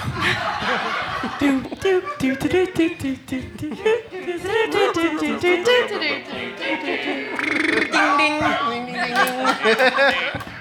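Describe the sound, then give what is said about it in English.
A loud novelty electronic song plays throughout over a spacecraft's loudspeaker, through the ship's hallways, its high, squeaky synthesized frog-like vocals babbling rapidly and almost laughing over a pulsing beat. “They lean in closer to one another to hear the song emanating throughout the hallways of the ship. … by ….”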